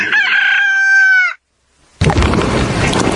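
A rooster lets out one loud, close crow lasting over a second, then a brief silence before a dense, rumbling wash of noise bursts in.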